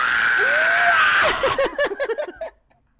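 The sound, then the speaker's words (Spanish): A voice imitates the scream of the robot droid Arturito: a rising, swelling wail followed by a quick run of about eight high, chirpy warbling bleeps that fade out, with no talking. “Puedes ser el grito de Arturito, por favor, amigo.”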